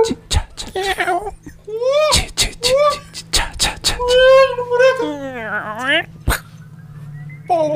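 A door creaks and squeals in long, wavering tones that rise and fall, broken by sharp clicks and knocks, loud for several seconds over a low steady hum.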